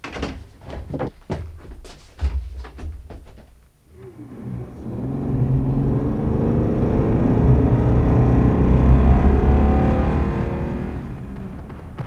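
A few sharp clunks and thumps like a car door shutting, then an engine starts and a car drives off, its low, steady rumble building and rising in pitch as it accelerates.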